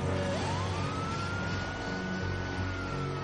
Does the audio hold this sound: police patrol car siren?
yes